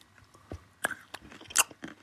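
Crunchy chewing on a hard cinnamon almond, with several sharp, irregular cracks and crunches spread over two seconds, the loudest bite near the end, with no talking.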